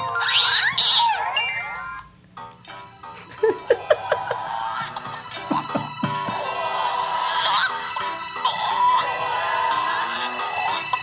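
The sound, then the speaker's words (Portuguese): Chicken clucks and squawks serve as backing vocals layered over a busy musical track, the birdlike calls repeating rhythmically, loud throughout. “Esse é, um, esse é um back vocal de galinhas.”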